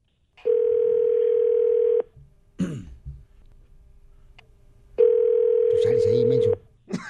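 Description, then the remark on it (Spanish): A telephone dial tone, heard while placing a call, sounds in two steady, loud beeps of about a second and a half each, separated by a pause holding a throat clearing and faint background murmur. “Uh, ahorita, ahorita echamos un telefonazo.”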